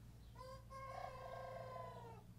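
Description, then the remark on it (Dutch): A young rooster gives one wobbly, drawn-out crow lasting about two seconds, thin and slightly strained, over a low steady hum. “Die probeert te kukkelen”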